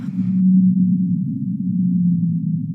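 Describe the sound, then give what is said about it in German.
A single long, low whale moan holds steady for about three seconds, loud, with a brief hiss of water noise at the start and no voices; the whale is about 20 meters away. “20 Meter weg, da ist ein Wal.”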